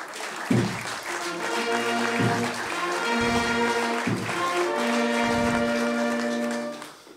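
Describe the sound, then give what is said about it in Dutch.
Steady audience applause, a dense wash of clapping that carries on for about seven seconds alongside sustained band music with thumping bass beats, fading at the very end. “Dat vind ik al een eh, groot applaus en dat is voor mij ook een record in de carnavalswereld.”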